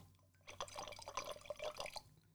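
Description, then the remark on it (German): Wine drips and splashes into a glass as it is being filled, a quick irregular run of small liquid plinks lasting a second or two, fairly soft, with no one talking. “Das ist übrigens mein Glas, das ich befülle.”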